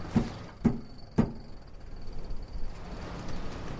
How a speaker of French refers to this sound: Je perçois beaucoup les, sons qu'il y a autour de moi, les grincements des poulies, le, bruit des cordes